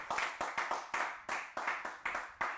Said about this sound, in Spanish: ¿Alguien puede dar un aplauso al Señor a eso?